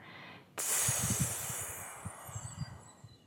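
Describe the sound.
A person doing a breathing exercise exhales in a long, steady hiss with the tongue pressed against the front teeth, like a snake, starting abruptly and fading gradually over about three seconds, with no talking.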